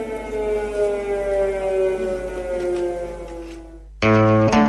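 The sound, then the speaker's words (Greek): An air raid siren wails loudly in the centre of Kyiv during the war, a steady, sustained tone with rich harmonics echoing across the city, then cuts abruptly to a harsher, louder burst near the end. “Ε, συνεχώ η Σιρήνα στο κέντρο του Κιέβου. Ηχούσε, έτσι κι αλλιώ άδειο ήταν το Κίεβο, όλοι οι άνθρωποι ήταν κάτω στα καταφύγια”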